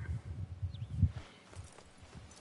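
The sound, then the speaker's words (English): Hooves of a horse named Odyssey clip-clop in a steady walking rhythm, moderately loud, with a faint high whistle-like tone briefly in the background. “No, don't lead the horse.”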